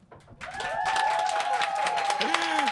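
A radio show audience bursts into applause to vote for a contestant, dense steady clapping mixed with cheers and whistles that swells quickly and holds loud for a couple of seconds.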